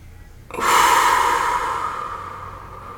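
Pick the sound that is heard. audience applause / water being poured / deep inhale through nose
deep inhale through nose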